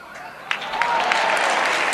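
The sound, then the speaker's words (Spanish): Steady applause from a street crowd at a religious procession, for a woman who sang a saeta, a dense wash of clapping that swells after the first half second and holds at a loud, even level with sharp individual claps poking through. “Aplauso para la saetera, a pie de calle se va a levantar el paso de la Virgen.”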